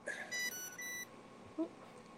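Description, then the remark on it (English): An insulin pump gives a short electronic alert: a few bright, steady beeps in quick succession, shifting pitch once, clear against a quiet background with no talking. “It's my insulin pump.”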